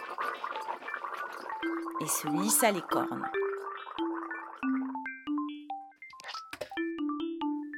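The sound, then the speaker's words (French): A short burst of gurgling and rinsing, like someone rinsing after brushing teeth, heard over a spoken narration, with light plucked musical notes playing throughout. “Aussitôt levée, elle se lava les dents, se brossa les poils”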